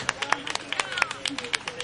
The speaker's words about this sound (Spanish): Por favor, un aplauso para Cecilia González del colectivo Madstock